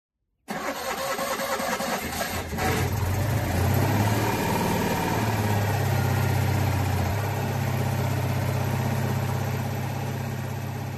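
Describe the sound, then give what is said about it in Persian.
The small engine of a Citroën Dyane car, called the Jiyan in Iran, roars loudly and steadily as it strains under load above 60 km/h, with a rising, droning low-pitched hum and buzzing overtones that hold for about ten seconds, with no one speaking. “دایان که پاش به ایرانم باز شد و اسمش رو گذاشتن ژیان یعنی خشمگین واقعا هم وقتی سرعت 60 کیلومتر بر ساعت رو رد می کرد حسابی از صدای موتورش معلوم بود که عصبانی شده و داره زور میاد بهش صداشو بشنوید”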